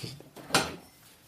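A refrigerator door is pulled open with a single soft thud and brief rattle of contents, then a quiet low hum lingers afterward. No one speaks.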